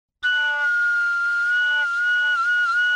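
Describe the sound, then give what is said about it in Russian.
A bright, reedy pipe (dudka) holds one sustained note for about three seconds, making a semitone glissando near the end before settling. It plays alone and steady, with no talking. “А на дудке я не могу вот на, сделать чистое глиссанда, допустим, на октаву, а, я могу это сделать только вот на, на, на полтона”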